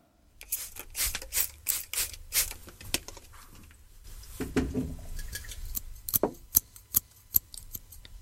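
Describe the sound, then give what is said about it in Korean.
Crisp snips of scissors cutting and trimming hair, arriving in quick irregular bursts of sharp clicks with brief soft rustles between, no voices. “네, 가위 소리입니다. 머리카락 자르고 머리카락 다듬는 손재주 있으신 분들은 집에서 애들 머리 다듬어 주기도 하시죠.”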